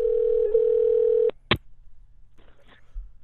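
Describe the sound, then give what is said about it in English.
A steady telephone dial tone hums for just over a second after a cell phone call drops, then cuts off with a click and a sharp burst of noise, leaving only faint low background rustle. “I, am willing to bet his cell phone dropped out.”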